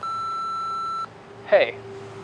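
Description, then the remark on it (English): A single steady electronic tone, a voicemail recording beep heard on a call from a payphone in front of Gazzarri's on the Sunset Strip, sounds for about a second and cuts off cleanly, followed by a brief burst of a voice starting to speak. “No one answered, so he left a voicemail, the first he'd ever made. The voicemail was not ubiquitous in those days. After the beep, he said,”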